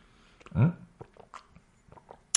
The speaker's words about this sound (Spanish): En, orden cronológico, el primero de ellos, voy a dar un traguito de agua primero, en la querida taza tecnóloga, aquí.